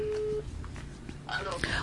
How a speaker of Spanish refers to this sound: Lo estamos llamando. Vamos a ver, vamos a ver. Ajá. Guillermo, contéstame el teléfono.